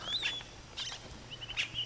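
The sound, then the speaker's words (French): Caciques, yellow-and-black birds about fifteen centimetres long, call from their nests just overhead in the Amazonian park of French Guiana, a few short bright whistling bursts spaced across a couple of seconds. They are fairly faint, over a low steady hum, with no one talking. “Donc là, ce qu'on peut voir, c'est des nids de caciques avec les cassiques euh, juste au-dessus.”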